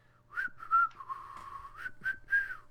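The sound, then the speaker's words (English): A person whistles a short melodic tune from a song, the pitch gliding up and down through several connected notes over a few seconds, clear with no talking. “It was like um like whistling a song mm.”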